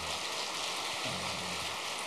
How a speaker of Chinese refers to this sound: 那感谢感谢人家，鼓鼓掌，谢谢大家。